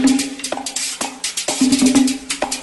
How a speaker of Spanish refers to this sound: Y a este instrumento le pusieron la guira, que suena así o merengue.